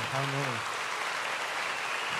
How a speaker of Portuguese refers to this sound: Então, uma salva de palmas para todo mundo que estava aqui.